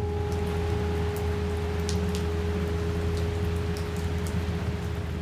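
Steady rain falls at night on a cold road, pattering continuously with scattered sharper drops ticking through a dense wash of noise, all under a low constant hum; the intensity stays even throughout rather than building.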